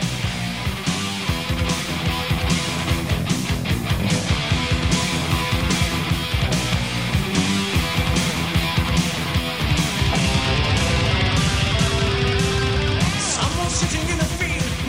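A loud, dense rock song plays throughout, with fast driving drums and thick distorted guitars filling the mix at a steady, relentless pace, and no talking over it.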